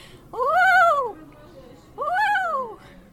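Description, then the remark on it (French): A person imitates a common loon's call twice, each a loud, rising-then-falling wavering wail lasting under a second, separated by a short pause, with no other talk. “Attendez, je vais peut-être m'éloigner un peu du micro parce que c'est fort un huard.”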